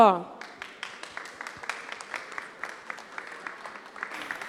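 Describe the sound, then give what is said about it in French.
An audience applauds with steady, moderately loud clapping from many hands, welcoming the moderator, a journalist, following a brief voice at the very start, the claps continuing evenly to the end. “Maintenant, merci d'accueillir notre modératrice, la journaliste”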